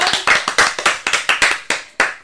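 Audience applause: a run of sharp, crisp claps at a fairly steady, quick pace, sounding like a small group clapping together, with no voices over it.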